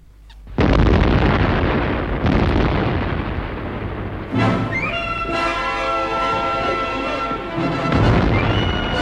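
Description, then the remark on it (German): A car bomb explosion, an attack using a special fuel mixture that wrecks the car, bursts out suddenly as a loud, booming blast, followed by a long rumbling roar with a second surge, then shrill wavering whines over the continuing noise. “Zugegeben, war ein heimtückischer Anschlag, das mit der Spezialmischung. Der Wagen war zum Teufel, gründlich demoliert.”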